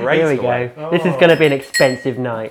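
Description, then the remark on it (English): A small object drops into a glass with a quick, bright clink beneath a man's continuous talking. “So that's just one in the glass.”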